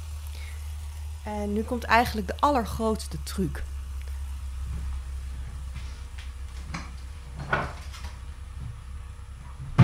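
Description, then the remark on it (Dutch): A steady low electric whirring runs unbroken through the whole recording, the sound of an electric milk frother, set on its base and switched on, churning milk, with a person talking briefly over it near the start. “Je hoort hem nu schuimen.”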